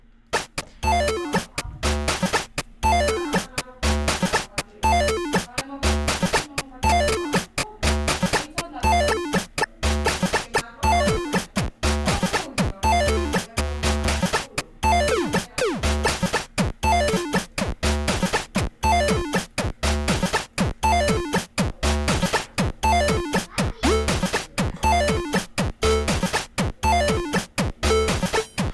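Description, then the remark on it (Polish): A pocket synthesizer loops a steady sequence of electronic knocking hits with thumping low beats, a busy repeating pattern at an even tempo, loud, with no voices. “Mam takie pukanie, no fajnie, chcę, ale na przykład, żeby były różne wysokość tych dźwięków, prawda?”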